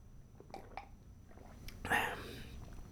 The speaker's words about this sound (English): Sip of coffee to the working man.